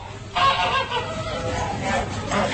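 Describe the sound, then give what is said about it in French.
Several geese honk loudly and continuously during force-feeding with maize in the Gers, France, recorded in 1996; their harsh nasal calls overlap in a noisy, agitated burst against a low background rumble. “Écoutez le gavage du noix dans le Gers, euh, enregistré par Pascal Fossat pour l'émission Le Pays d'ici en 1996.”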